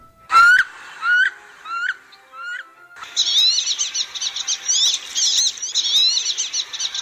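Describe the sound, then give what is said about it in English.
A female wood duck (Aix sponsa) gives four or five loud, separate rising squeals, then a male's thin, high whistles rise and fall in a steady, overlapping stream, with no talking. “The female's call is much louder than that of the male's, which is a rising and falling thin whistle.”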